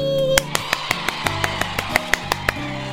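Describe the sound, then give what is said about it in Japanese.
A quick, soft round of hand clapping: about a dozen light claps at a steady, even pace. They sit over a faint, steady background hum. “はいということで私の隣に今カンパネーラが寝ているので、はい、小さめに拍手したんですけれども”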